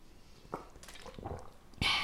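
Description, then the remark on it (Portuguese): A few quiet sips and swallows of water, soft wet gulps spaced out, finishing with a louder breathy exhale right after drinking. “Deixa-me só beber um bocado de água que eu estou a falar bem rápido.”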